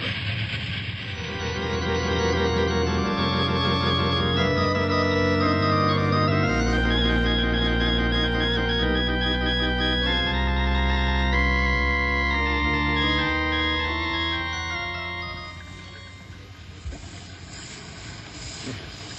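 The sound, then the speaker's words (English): A train braking hard to stop before a collapsed bridge, its stopped wheels skidding and shooting sparks, grinding out a loud, continuous metallic screech of shifting, whining squeals over a deep rumble for about fifteen seconds before it eases off. “Train hit brakes. I hope we can stop in time.”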